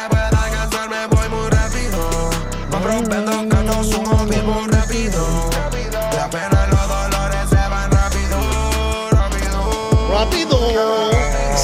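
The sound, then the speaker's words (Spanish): A trap song plays loudly and steadily, with booming sub-bass hits, crisp rapid hi-hats and a melodic synth line running throughout, no talking over it. “estamos escuchando …, ah, dice. …, de, de, …, nada menos.”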